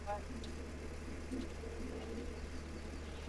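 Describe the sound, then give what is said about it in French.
A steady, low tractor engine drone rumbles continuously, with faint background sounds over it. “Tu sais que c'est la première fois que je monte dans un tracteur”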